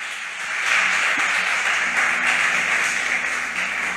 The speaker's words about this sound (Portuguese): Você pode dar um forte aplauso ao Senhor por essa palavra?